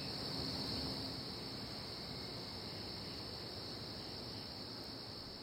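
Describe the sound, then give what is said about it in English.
A dense, steady chorus of katydids buzzes without pause at night in the Pocono Mountains at the end of summer, a continuous high-pitched drone from many insects at once with no voices. “At night, the katydids make a lot of noise, marking the tail end of the season and the shift to cooler nights, vibrant fall foliage, and all things autumn.”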